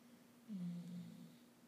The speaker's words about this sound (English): That was Abby snoring.